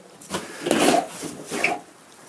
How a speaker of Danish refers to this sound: Åbner jeg døren ind til et hønsehus her.